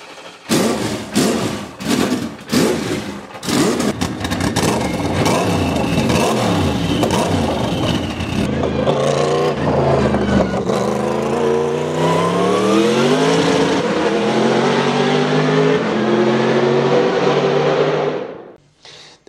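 A C11 race car's 5-litre V8 biturbo engine, a Mercedes production engine tuned for high performance, cranks with several sharp bursts, fires up, then revs hard, its loud roar climbing and swelling steadily before cutting off abruptly.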